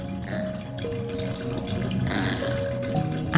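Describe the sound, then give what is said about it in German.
Bathwater is let out of a tub after a bath and drains with a steady gurgling rush, thin whistling tones sliding through it and a brief louder swirl near the middle. “Sunny schaut aufgeregt grunzend dem abfließenden Wasser hinterher, während du sie schon vorsichtig trocken rubbelst.”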